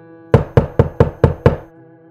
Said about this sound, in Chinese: 对方在自言自语的同时，门也随之被敲响而发生轻微震动。